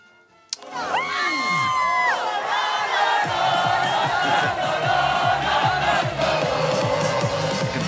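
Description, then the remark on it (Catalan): A loud crowd erupts in sustained cheering and shouting after a sharp onset, voices whooping and yelling together in a dense, continuous roar for several seconds, as it cheers the Barça women's players riding on top of a parade bus. “Són les jugadores del Barça, per la gent que ens escolta, a sobre el bus. És espectacular”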